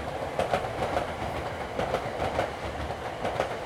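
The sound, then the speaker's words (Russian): A train rolls steadily along the rails, its wheels clacking in a regular rhythm over the joints beneath a constant rumbling roar, fairly loud, with no voices. “Пускай же этот поезд не разрежет нас пополам, а увезет в иные края.”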